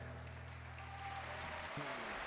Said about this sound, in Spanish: Ole, fuerte aplauso para el mes que viene.